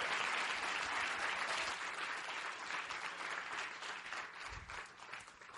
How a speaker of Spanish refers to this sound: Un aplauso, por favor, gigante para él.